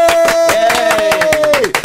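Applause from a group, sharp overlapping claps throughout, loud and steady, with a sustained tone running underneath that glides downward just before the end.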